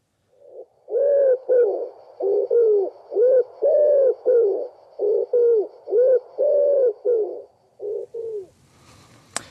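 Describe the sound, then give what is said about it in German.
A common wood pigeon's cooing song repeats its soft, hollow five-note phrase several times in a steady rhythm, loud, with no talking, ending in a brief faint rustle. “Jetzt kommt die Ringeltaube. Achtet auf die fünf Töne.”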